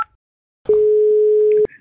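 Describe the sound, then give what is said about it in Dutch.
A single steady telephone tone, heard while dialing a call, holds at one mid pitch for about a second, loud and unbroken, then cuts off abruptly; a short click precedes it and no one speaks. “Wij gaan bellen in de rubriek Welkom in de Waarde Waardepolder.”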